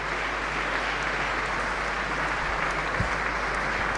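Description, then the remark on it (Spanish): Sustained applause from a large crowd in a cathedral, a dense, steady wash of clapping that holds at an even loudness for the whole stretch, with no voices standing out, as the new bishop walks through the naves greeting his new diocese. “Lo hace mientras la catedral aplaude.”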